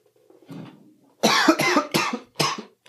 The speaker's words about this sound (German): Ich muss nochmal husten kurz.